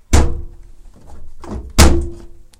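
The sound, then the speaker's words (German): Two heavy thunks from a downloaded sound effect simulating a washing machine door shutting, about a second and a half apart, each with a brief hollow ring and a soft rattle in between; no voices. “Das soll den Geräusch, das Geräusch simulieren, wenn man eine Waschmaschine schließt.”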